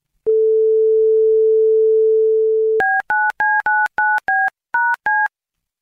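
Telephone line tones on a call to a doctors' practice on Margrethe Vej in Vojens: a steady, low dial-tone hum for a couple of seconds, then eight quick electronic keypad beeps in an uneven rhythm. Nobody speaks.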